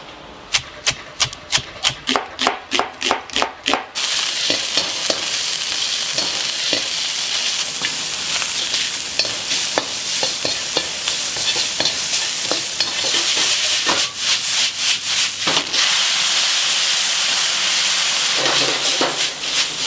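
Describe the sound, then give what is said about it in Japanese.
Loud, steady sizzling of curry yaki udon on a griddle at Satsuki, a five-minute walk from Seibu-Shinjuku Station, opening with a quick run of sharp scraping strokes, then a continuous bright hiss broken by occasional clinks and more stirring scrapes. “今朝は西武新宿駅から徒歩5分さつきカレー焼きうどんのいい音”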